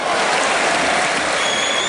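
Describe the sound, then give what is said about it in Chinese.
A crowd applauds steadily, a dense, even wash of many hands clapping at once with no pauses and no voices over it. “此处可以有掌声。”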